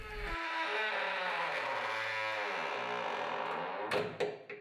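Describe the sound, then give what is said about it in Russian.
A long, drawn-out creak of a house door's hinge in the morning, steady and fairly loud, with a shifting tonal groan, ending in a couple of sharp knocks as the door settles. “Как только наставало утро, пение дверей раздавалось по всему дому.”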